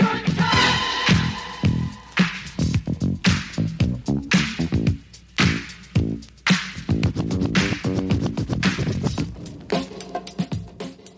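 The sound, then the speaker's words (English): An early-eighties hip-hop turntable mix plays loud and up front, with choppy cuts between musical snippets, punchy beats and sudden stops, and no voices talking over it. “from the early 80s, one of his classic recordings”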